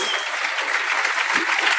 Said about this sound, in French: Merci beaucoup. on l'applaudit.